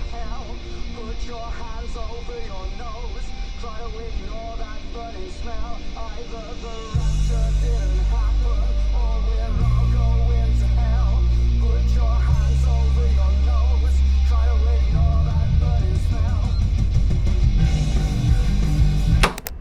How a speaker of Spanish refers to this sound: De regreso estuve a cargo de la música en el auto.